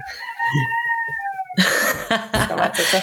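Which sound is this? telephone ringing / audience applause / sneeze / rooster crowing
rooster crowing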